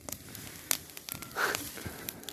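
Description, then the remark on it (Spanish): Crisp crackling of a cardboard box falling into a fire and burning, with scattered sharp pops and snaps over a low, steady rush of flame, one brief louder flare near the middle. “Trae una caja que se cae, que se cae quemando la caja.”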